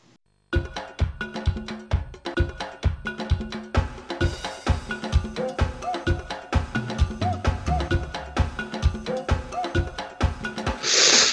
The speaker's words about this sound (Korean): 아, 지금 듣고 계신 음악은 어, 플레이스테이션 2 어, 에브리바디 골프 모두의 골프죠. 네. 예, 2003년도에 나온 게임의 음악이에요.